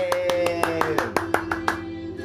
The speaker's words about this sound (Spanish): Fuerte el aplauso.